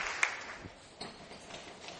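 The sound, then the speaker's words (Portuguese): A church audience applauding the Lord, a soft, steady wash of many hands clapping with a few sharper claps standing out, fairly quiet and continuous throughout, with no talking. “Aplauda ao Senhor.”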